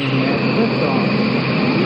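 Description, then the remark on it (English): Rocket engines roar at liftoff following a countdown and main engine start, a dense, unbroken rumbling blast that holds steady and loud for the whole couple of seconds. “Liftoff.”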